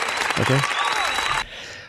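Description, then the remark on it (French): A short burst of dense, loud applause with a brief voice rising through it, then the clapping cuts off abruptly after about a second and a half, leaving only a faint fading wash. “Applaudissements.”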